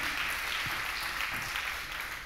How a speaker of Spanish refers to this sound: Un aplauso fuerte al Rey de Reyes y al Señor en esta tarde.